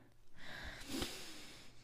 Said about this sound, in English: Breathing in, breathing out your mouth. This causes your body to enter a relaxation mode.